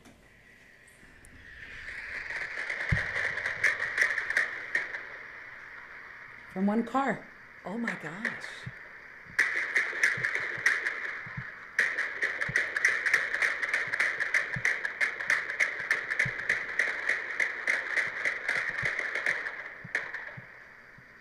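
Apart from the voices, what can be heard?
rapid gunfire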